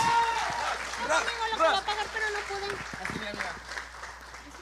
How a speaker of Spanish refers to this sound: Así que, ¿por qué no le damos un fuerte, fuerte aplauso